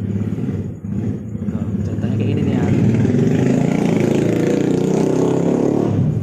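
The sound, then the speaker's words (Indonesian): A motorcycle engine revs loudly at the roadside, its rough growl building after the first couple of seconds and holding steady at a strong, droning pitch until the end. “Jadi kalau misalnya ada suara motor, mobil.”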